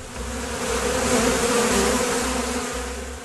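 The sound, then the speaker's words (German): Black-and-yellow banded wasps buzz continuously, a dense droning hum that swells slightly in the middle, with several insects overlapping and no voices, in late summer. “Massenhaft treten die schwarz-gelb gebänderten Wespen immer im Spätsommer auf, wenn in den Nestern Tausende von Larven ernährt werden müssen.”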